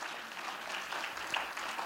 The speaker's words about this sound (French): La façon dont tu applaudis, on dirait que tu étais un médisant.